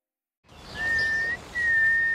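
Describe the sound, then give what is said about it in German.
A biologist standing in the bushes in Berlin's Tiergarten whistles two long, steady, high notes separated by a brief pause, clear, over a soft background hiss with no talking, trying to get a nightingale to sing. “steht im Gebüsch und pfeift. So versucht die Biologin eine Nachtigall zum Singen zu bringen.”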